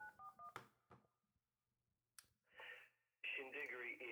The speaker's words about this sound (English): Hang on. Dialing it, put it on speakerphone.